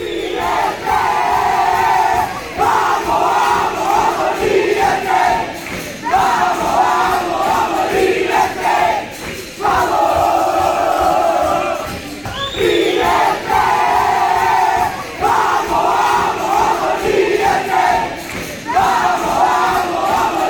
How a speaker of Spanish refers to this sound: Y así se vivía ahí de fondo. Dejarlo de fondo, Y se repita porque la verdad que es impresionante. Eran las chicas y el técnico gritando después del partido cuando pudieron celebrar y largar toda esa. Toda, ¿Cómo se dice? todas esas tensiones,